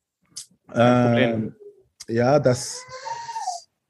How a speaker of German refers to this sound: Man hört deine Kinder im Hintergrund, oder? Ja, die Kinder hier herum. Ja.